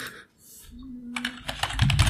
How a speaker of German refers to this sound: Aber ich mache es am Handy, damit man mich nicht auf der Tastatur tippen hört.